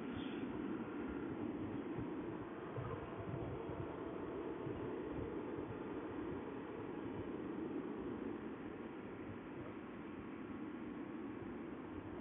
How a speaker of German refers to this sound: Bisschen laut sind die Reifen. Also das kann ich vielleicht noch erwähnen, also diese Karu, das fällt mir immer wieder auf, wenn man das Motorrad so rollen lässt, den Motor praktisch nicht hört. Weiß nicht, ob ihr das jetzt überhaupt hören könnt.